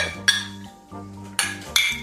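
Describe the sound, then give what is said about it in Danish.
Ceramic coffee cups clink together in a toast, three bright ringing taps spaced across two seconds, clear, with a low hum underneath and no talking. “Jeg tænker, om vi ikke lige skal skåle i kaffe.”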